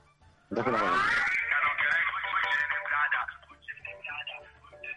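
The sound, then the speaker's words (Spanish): A loud, harsh burst of distorted reggaeton music from a device cuts in suddenly and holds for a few seconds, buzzy and crackling, then thins into fainter garbled interference. “Mejor apágala. Porque eh, hace interferencia.”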